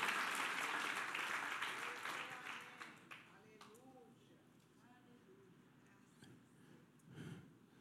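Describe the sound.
During a sermon, an audience breaks into dense, loud applause for Christ that fades away over about three seconds, leaving a quieter stretch with faint murmuring voices and a brief stir near the end.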